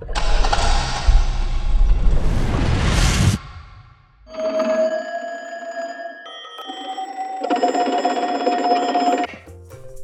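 A telephone rings in two sustained, tonal bursts, loud, following a few seconds of dense, rushing noise. No one speaks.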